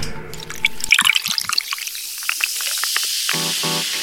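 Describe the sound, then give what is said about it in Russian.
Siberian lemonade is poured, with a splashy liquid sound and a steady hiss of bubbles crackling and popping, followed by a brief tonal hum near the end. “Под хруст французской булки, звук сибирского лимонада и шепот удивительной истории мы начинаем подкаст «Гастро Томск»”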